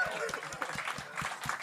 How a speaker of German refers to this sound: Lieber Applaus für den André.